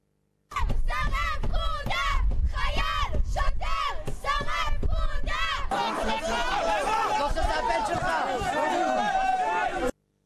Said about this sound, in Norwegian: ropte demonstrantene.